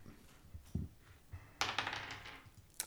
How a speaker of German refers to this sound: So, dann würfel ich jetzt. Ja.